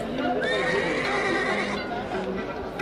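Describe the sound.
A horse gives one loud, drawn-out whinny lasting over a second, its shrill cry wavering and trailing off, with a murmur of voices and ambient noise continuing underneath.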